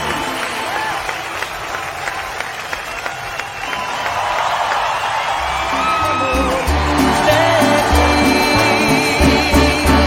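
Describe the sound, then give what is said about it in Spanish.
A crowd bursts into sustained applause for a new 'diamante' (diamond), with scattered whoops and cheers, dense and loud throughout, while booming music with a heavy bass beat rises underneath in the second half. “Un aplauso a nuestra nueva diamante.”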